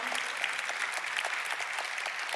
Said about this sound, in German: Vielen, vielen Dank. Geben wir ihm Applaus. Wunderbar. Danke für die Illustration.